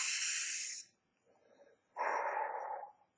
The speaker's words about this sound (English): I mean, seriously, if you just take a deep breath in, I mean, if you do that right now,